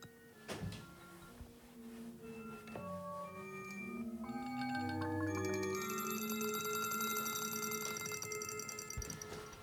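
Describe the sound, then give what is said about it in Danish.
A recording of a wind chime, about four seconds long, time-stretched in the Pure Data program on a computer: tones slowed to an extreme crawl, each metallic ring smeared into long overlapping drones gliding between pitches, with a bright shimmering upper layer swelling in the second half. “Ja, det er, det er et vindspil, jeg har optaget.”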